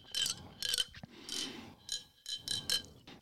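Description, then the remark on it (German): A glass marble rattles and clinks in the closure of a Ramune lemonade bottle in a series of bright, clattering bursts, with short pauses between the shakes. No one speaks. “Also den Verschluss checke check ich noch nicht so ganz, warum. Damit es schön klappert.”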